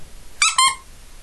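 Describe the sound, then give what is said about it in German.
Two quick, high-pitched squeaks in close succession, bright and shrill, the second slightly longer and trailing off, heard on their own against a quiet background. “Wieder so ein Quietschen, wieder so eine Lüge, wieder ein Hinterfragen des Wortes Gottes.”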